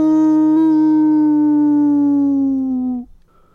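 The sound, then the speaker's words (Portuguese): A person's voice imitates a wolf howling: one loud, sustained howl that slides slowly downward in pitch for about three seconds before breaking off abruptly. “Ao ouvir aqueles uivos, o produtor chamou o lobo ao seu gabinete.”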